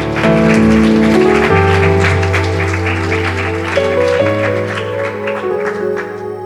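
An audience claps steadily as a clap offering to the Lord while sustained keyboard or organ chords play loudly underneath, the crisp overlapping claps continuing throughout.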